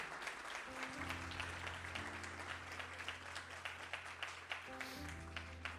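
An audience at a church sermon breaks into sustained, dense applause for the Lord, many hands clapping continuously over steady low sustained organ or keyboard chords that shift every second or so.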